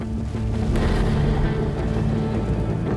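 A rocket carrying an Israeli satellite explodes on its launch pad, producing a loud, sustained low rumble and roar that holds steady for several seconds, heavy in the bass, with no voices; the ground shakes up to eight kilometres away and a huge cloud of smoke rises over the pad.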